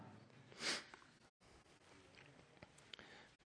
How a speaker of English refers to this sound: I love hearing the pages turn. I love that.